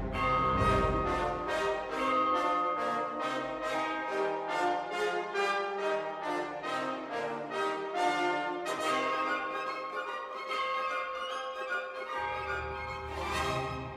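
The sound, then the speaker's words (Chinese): An orchestra plays the Dies Irae theme from the fifth movement of a Berlioz symphony loudly, with brass carrying a steady procession of sustained, rich notes over a deep low bass line, after a death knell, with bell-like tones ringing through. No one speaks. “我们来听这一个非常经典的 Dies Irae 震怒之日”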